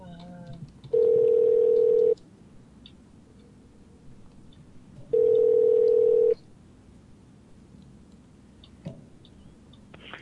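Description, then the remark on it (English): A telephone line rings during a call transfer: two long, steady ringback tones, each about a second long, separated by a four-second pause, clear and prominent over faint background noise. “Your call is being transferred.”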